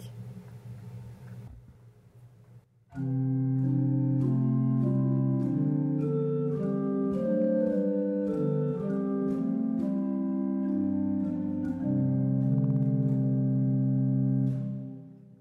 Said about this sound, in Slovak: Áno, a u vás chápem orgáne prvý manuál, pri dvojmanuálnom nástroje, že ako keby hlavný, tak by mal byť logicky kvázi sítejší zvuk a poslucháči to budú môcť teraz porovnať.